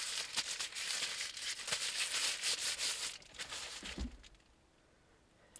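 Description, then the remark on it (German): Continuous crinkly rustling of plastic hand-mask gloves worn on a person's hands for about three seconds, with sharp crackles, then quieting to faint scattered rustles and a soft thump near the end. “Ich darf jetzt meine Hände gar nicht bewegen, weil es sonst raschelt.”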